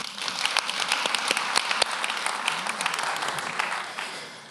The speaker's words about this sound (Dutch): Allemaal een applaus voor hem.